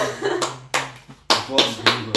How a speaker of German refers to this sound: Feiert mich, Leute. Applaus.